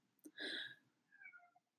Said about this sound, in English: I don't know how much my microphone picks up, but if you can hear my cat crying, I'm so sorry. I can't control her.